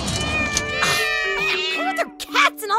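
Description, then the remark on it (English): Several cats meow in a quick overlapping series of drawn-out, wavering cries, some rising and bending in pitch, with no talking over them. “Okay, um, Guy Raz, will you hold these cats?”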